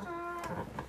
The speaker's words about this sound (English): Did you fart? No, that's a chair.